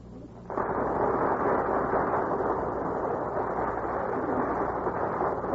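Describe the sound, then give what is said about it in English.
A sudden burst of studio audience applause for stars Gary Cooper, Joan Leslie and Walter Brennan taking their places before the Gulf microphone starts after a brief quiet moment, then holds as a steady, dense wash of clapping at a fairly loud, even level. “burst of applause is for our stars who are taking their places before the Gulf microphone.”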